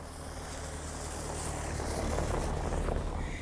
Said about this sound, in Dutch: Er komen, oh jee, er komt de vrachtwagen hier naartoe. Even aan de kant.